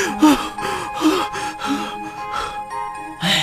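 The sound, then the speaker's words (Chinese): A voice imitates an old hunting dog panting after running away: quick, rhythmic huffs of breath, about eight in a row, breathy and fairly loud, with a faint steady tone humming underneath. “啊，跑得我现在还喘不过气来呀！”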